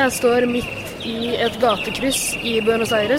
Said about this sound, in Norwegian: Eh, og fyren som lager de nye lydene der, er en eh, sånn jævla gategjøgler som driver og selger noen fløyter til eh, små intetanende unger. Uh, irriterende greier, egentlig.